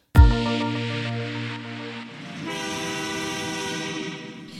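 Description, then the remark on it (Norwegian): A loud train horn blasts in one sustained, harmonically rich tone, its pitch and texture shifting midway as the rumble of the moving train swells underneath. “Og med dette tutet sier jeg velkommen til deg”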